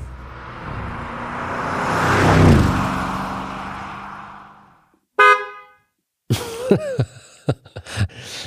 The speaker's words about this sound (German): okay, den hat äh, Doppelkupplung. V8 ja. mit Turbos, mit Turbolader. Ja. Ja. Schnell, aber nicht so schnell. Schnell, aber woher willst du wissen, dass der schnell ist? Also ich meine, er hört sich schnell an und so, ne?